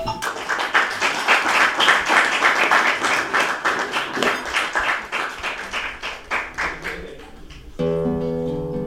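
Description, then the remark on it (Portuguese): Audience applause for two people, a dense burst of many hands clapping loudly, gradually thinning and fading, then cut off by a steady tonal, harmonic sound near the end. “Portanto, eu pedi uma grande salva de palmas para os dois.”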